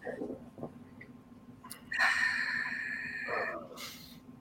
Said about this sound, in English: So let's do some breathing together.